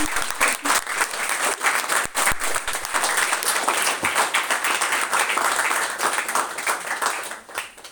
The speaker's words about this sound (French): Je pense qu'on peut déjà applaudir avant d'enchaîner sur les questions.